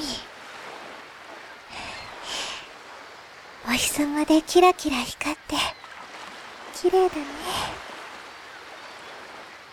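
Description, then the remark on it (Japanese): Soft, steady wash of gentle ocean waves fills the background throughout, a low continuous hiss of surf, while a voice speaks over it in short bursts through the middle. “水がこんなにたくさんああ確かこれは海というものらしい塩水でできているんだとか海”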